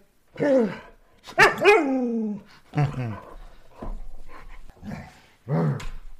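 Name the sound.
dog barking and growling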